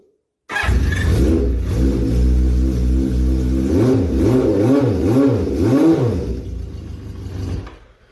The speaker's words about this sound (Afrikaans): Sy uitlaate is geseramiekout. Dit is 'n pragtige motorfiets. Natuurlik baie krom om te poleer en so aan, maar uh, regtig waar ek is baie lief vir die motorfietses. En uh, kom ons kyk gou of ek vir jou kan laat hoor hoe hy klink. Hoor gou hierso.